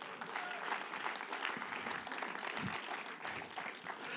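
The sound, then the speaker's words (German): An audience breaks into steady applause, a dense, continuous patter of many hands clapping at an even level for several seconds, with a faint murmur of voices underneath. “Geben wir ihr einen Applaus.”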